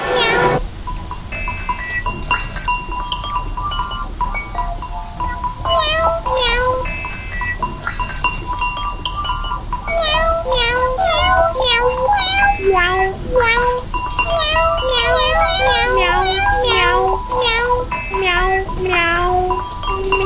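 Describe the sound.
Six-year-old children from a music initiation class mimic cat meows again and again in an electronic sound experiment, short rising-and-falling mews that grow denser and overlap, set over a steady electronic drone with sustained synthetic tones.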